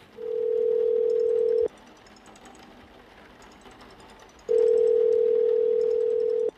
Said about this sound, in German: noch während ich mit den Füßen die Handtücher wie ein Feudel über den Boden schubste, wählte ich bereits die Telefonnummer